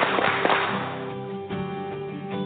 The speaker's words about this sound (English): Three claps, we're ready tonight. Three claps. Three claps. Three claps.